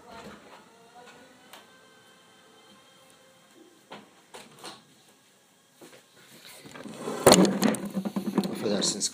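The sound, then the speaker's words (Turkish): A door is pushed shut near the end with a solid thud, followed by brief rattling and clatter, after a stretch of quiet shuffling and light handling noises. “kapıyı kapattım.”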